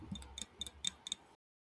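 White grape sparkling water fizzing over ice in a glass, a quiet faint hiss broken by five or six sharp crackling ticks at an uneven pace, with no voices.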